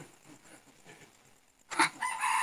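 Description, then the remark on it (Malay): After a moment of faint, low background murmur, a rooster suddenly lets out a loud crow that rises sharply and is still going when the sound cuts off. “awal ayam kokok.”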